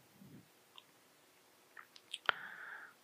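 Wet chewing of watermelon: a few soft clicks and smacks, then a sharper juicy crunch followed by a brief slurping squelch, with no one talking.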